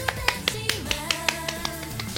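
Steady hand clapping, about ten crisp claps at a quick, even pace, with a soft, sustained tonal sound humming underneath.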